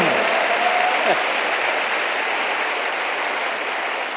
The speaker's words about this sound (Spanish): Dele otro aplauso. Amén.